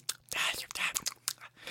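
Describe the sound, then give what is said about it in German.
A voice imitates someone whispering in a library: breathy hissing bursts broken up by short, wet lip-smacking clicks in a quick, irregular run, fairly quiet throughout and with no clear words. “Ich habe mir gestern ein Video angeguckt, da hat jemand auch geflüstert in der Bücherei und es, es schmatzt dann so, so.”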